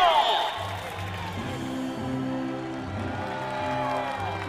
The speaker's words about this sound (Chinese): 哇哦，漂亮！他完成了比赛，让我们为他的体育精神欢呼。